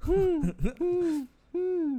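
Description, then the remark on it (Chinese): A person imitates an owl's hoot, giving a few sustained, steady, mid-pitched hoots separated by short pauses, with no other talking. “猫头鹰经过， 我吓一跳，原来是你发出的声音，因为你嘴巴没有在动，我很害怕”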